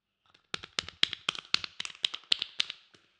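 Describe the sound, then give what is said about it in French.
A short burst of clapping from a small group of children at dessert time, as a chocolate cake is served, about a dozen sharp, uneven claps over a few seconds with no talking. “Au moment du dessert, les enfants applaudissent.”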